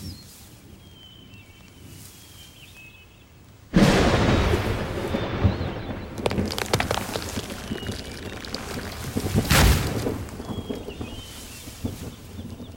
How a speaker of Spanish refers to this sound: Ya mero te pega el rayo. Qué bueno que le pegó ese árbol, si no estarías bien frita. Ya vámonos, no vaya a caer otro.